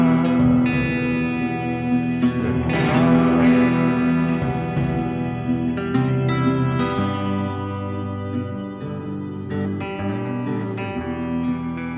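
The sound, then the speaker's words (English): A twangy electric guitar song drenched in reverb and echo, with the reverb turned up on the vocals, ringing sustained chords and a steady, moderately loud full-band sound throughout. “With that influence in mind, I tried to write a song that captured the same sort of hopeless feeling I made the sound of the guitars pretty twangy and turned up the reverb on the vocals”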